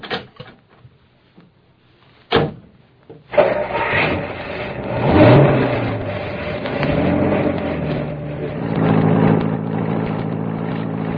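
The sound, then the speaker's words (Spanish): After a quiet start and a single sharp thud, a car engine catches and revs up, then settles into a steady rumbling drive that continues to the end, as passengers are taken by car to the prosecutor's office. “¿Suba usted también en el coche, señorita? Sí, señor. ¿Para dónde nos lleva? A la Procuraduría.”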